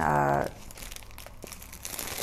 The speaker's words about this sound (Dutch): Moet er gewoon tape omheen of zo, maar ik heb geen zin. ik doe liever dit. Dus ik doe nu gewoon een zakje over de zwanenhals heen. En dan doe ik met plakband. Want dit werkt wel.